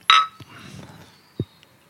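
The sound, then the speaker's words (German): A bright glass clink rings out sharply at the start and fades quickly, followed by soft low bumps and a dull knock, like glasses being set down after a toast. “Wir können auch echt nicht irgendwie verstecken, wann wir Gläser hochnehmen und nicht.”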